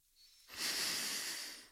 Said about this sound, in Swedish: Fyll magen en gång. Utan att höja axlarna. Tänk magen ska fyllas. Du är fortfarande bröstet. Lägg handen på magen. Andas in.